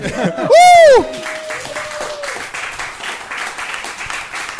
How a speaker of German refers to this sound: Wir nehmen eh, ich habe schon äh, so Applaus-Tracks runtergeladen okay, cool, ja. von meiner anderen Show.